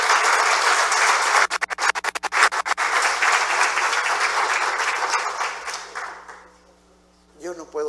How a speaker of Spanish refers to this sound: Dale un fuerte aplauso al Señor Jesucristo.